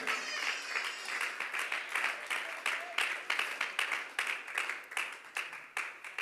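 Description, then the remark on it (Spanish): A crowd applauds God steadily, many hands clapping in a dense, crackling wash that builds into faster, sharper bursts toward the end, with a few faint voices mixed in. “Puede aplaudirle con todo su corazón en esta hora.”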